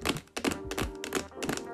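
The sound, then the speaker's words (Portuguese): A quick run of light tapping of manicured fingernails on a hard surface, about six or seven taps in an uneven rhythm, sharp and fairly clear with no one talking. “Eu não sei que se tu que me estás a ouvir, se és sexo feminino, sexo masculino ou se és non-defined, mas quem tem unhas feitas, meu? Eu tenho sempre esta panca”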